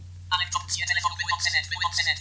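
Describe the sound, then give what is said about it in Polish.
A mobile phone powering on: a bright, layered startup melody of shifting tones plays for about two seconds over a low, steady electrical hum. “No dobra, ale teraz włączam telefon.”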